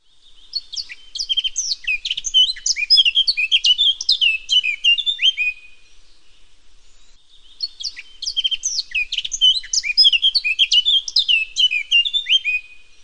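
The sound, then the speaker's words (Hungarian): A Eurasian blackcap (Sylvia atricapilla) sings two long, rich warbling phrases, each lasting about five seconds with a short pause between, clear with no other sounds. “Barátposzáta (Sylvia atricapilla)”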